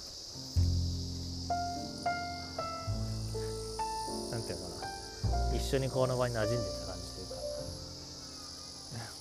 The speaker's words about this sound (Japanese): 向こうで子供が泣いてるけどなんかこの辺の虫の鳴き声に近い感じで一緒にいた感じかな